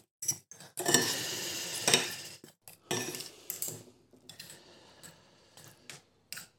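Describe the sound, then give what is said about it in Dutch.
Someone tastes food, eating with cutlery: irregular clinks and scrapes of metal against a plate, in short bursts with brief pauses between, fairly quiet and with no talking. “De mensen die eh, gevoelig zijn aan eetgeluiden, ik vrees dat dit eh, een moeilijk momentje wordt.”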